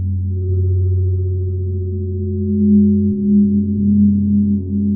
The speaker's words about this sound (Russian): и в то, как эти призвуки будут резонировать на клеточном уровне. когда каждый удар гонга уходит в бесконечность.